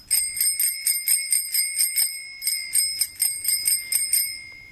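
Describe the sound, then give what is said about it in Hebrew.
A bicycle bell rings rapidly and repeatedly, a bright metallic trill of quick strikes that pauses briefly and then continues. It is clear, with no voices. “איזה צלצול, רק לאופניים שלי יש צליל יפה כזה.”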